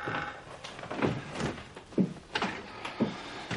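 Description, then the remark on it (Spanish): A door is swung wide open before the person returns to a chair, with several soft knocks and thuds spaced about a second apart over a faint hiss. No one speaks. “Irene abre de par en par y vuelve a su silla.”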